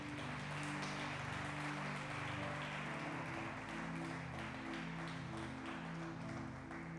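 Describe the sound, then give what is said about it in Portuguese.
A church audience applauds the Lord steadily for several seconds, a dense wash of clapping over sustained keyboard chords playing underneath. “Dá uma salva de palmas ao Senhor.”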